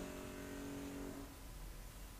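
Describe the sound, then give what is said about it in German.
A neighbour's power drill whines steadily, muffled, then cuts out after about a second, leaving a low rumbling background. “So wie das, wie hier die Bohrmaschine. Ich weiß nicht, ob ihr die vom Nachbarn hört.”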